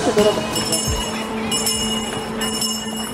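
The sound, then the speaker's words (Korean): A Salvation Army charity kettle handbell rings repeatedly in bright, metallic strokes during the December fundraising drive, its tones lingering between shakes, set against a steady hum of busy outdoor background noise with faint voices. “이맘때면 어김없이 울리는 구세군 자선 냄비 소리 들려드렸습니다.”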